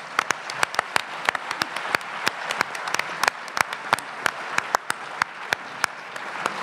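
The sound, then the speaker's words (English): A crowd applauds steadily for several seconds, dense overlapping claps with sharper individual claps standing out, moderately loud, with no talking over it; an audience applauding the speakers after a round of questions. “Let's give them a quick round of applause.”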